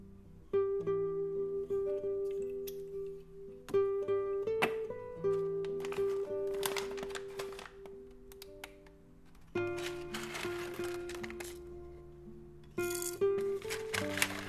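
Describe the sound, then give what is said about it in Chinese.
Coffee beans being ground at home to make cold brew coffee: a dense, crunchy crackling and rattling that comes in long stretches, with brief pauses, over a steady tonal musical background. “最近很热，有一天突然想喝冷萃咖啡，看了几个视频，发现做起来好像很简单，家里现有的工具还有现成的豆子可以做，于是马上开始磨豆子。”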